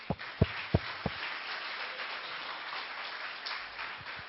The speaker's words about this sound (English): Amen. Give Lord a clap offering.